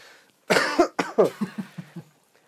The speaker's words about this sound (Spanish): bueno, esa pinche tos de perro nos despedimos. Bueno, nos despedimos porque yo ya no puedo seguir más. Mi garganta está muy jodida y tengo mucha tos.